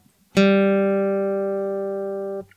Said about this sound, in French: Donc cette note-là, c'est un sol, même chose. Do, ré, mi, fa, sol, 5. Donc on est sur une quinte.